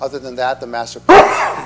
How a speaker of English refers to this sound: Bless you. Bless you. Excuse me, sorry.